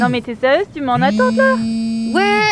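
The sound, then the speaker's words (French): A steady electronic buzz of a phone alarm going off at 8 p.m. starts partway through and holds evenly for over a second while people talk over and around it. “ouais, ouais, mais euh, attends, c'est mon alarme en fait.”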